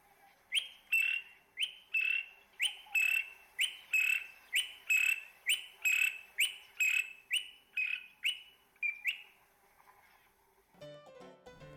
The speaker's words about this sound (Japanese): 今日ご紹介するウガンダの鳥はノドグロミツオシエです